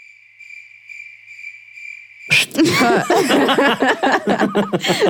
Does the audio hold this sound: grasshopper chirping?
yes